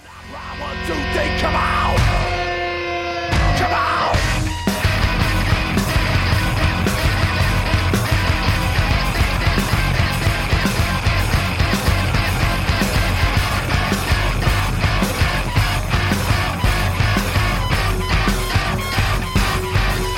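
Dense, loud experimental rock music with a droning, distorted wall of sound; after a brief sustained tonal opening, a relentless pounding rhythm drives on repetitively, hypnotic yet abrasive.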